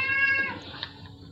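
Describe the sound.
A single drawn-out, high-pitched meowing scream with a harmonic, wailing tone that slides downward and fades, heard alone; a scream that sounds like meowing, heard from the other side inside a cave.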